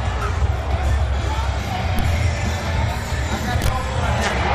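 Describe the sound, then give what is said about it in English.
A large wrestling arena crowd roars and cheers continuously, a dense, loud wash of voices and noise with a few sharp spikes of louder yells rising above the steady din. “This is the crowd getting into.”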